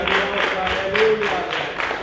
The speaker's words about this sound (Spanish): Amén. Un aplauso a Cristo. Excelente.